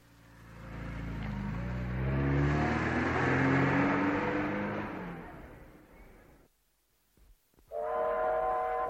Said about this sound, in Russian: Мы едва успели на поезд. Как только вошли в вагон, он тронулся.